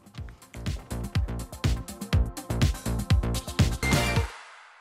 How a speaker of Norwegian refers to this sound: Og nå skal vi gå på en låt som du hører litt i bakgrunnen allerede.